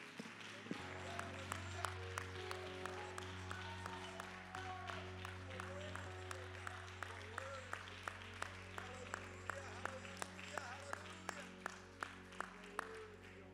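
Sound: audience hand clapping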